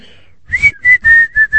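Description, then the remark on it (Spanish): A person whistles a short tune, five clear sustained notes in a steady rhythm with brief breaths between them, loud and alone with no talking. “¿Ah, quieres que la chifle?”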